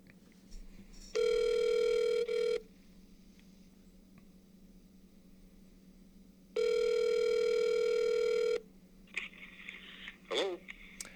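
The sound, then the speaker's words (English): A phone line rings twice as a call is placed, each steady electronic tone lasting over a second with a long quiet gap between, followed by faint clicks and rustling as the call seems to connect. “But we're going to give Ray a call here and just yep.”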